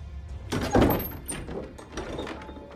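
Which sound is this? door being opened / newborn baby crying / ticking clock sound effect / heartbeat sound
door being opened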